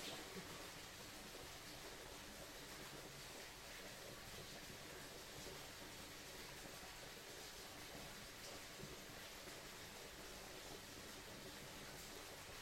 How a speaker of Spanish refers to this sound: En este momento, permite que el sonido del agua te transporte más allá de las palabras.